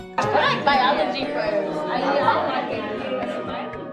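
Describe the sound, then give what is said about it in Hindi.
A group of village children shout and chatter all at once as they approach an old woman's hut, in a noisy, overlapping clamor, steady and fairly loud for the whole few seconds, with no single voice standing out. “ये बच्चे शोर मचाते हुए बुढ़िया माई की झोपड़ी के पास आते हैं”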